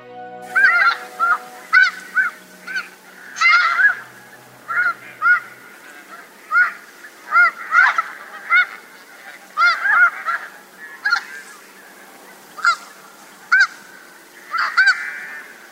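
A flock of snow geese in a pasture at the mouth of the Tokachi River in Toyokoro, Japan, honks repeatedly, with short, nasal calls overlapping in quick irregular bursts. The calling is loud, and no voices are heard.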